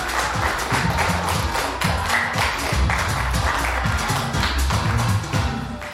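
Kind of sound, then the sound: crowd, audience applause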